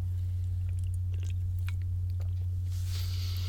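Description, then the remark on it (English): Sipping of sparkling water: small wet mouth clicks and swallows, then a soft fizzing hiss near the end, all over a steady low electrical hum with no talking. “maybe I'll do a follow up video on something like this as I take a sip of some uh, bubbly water.”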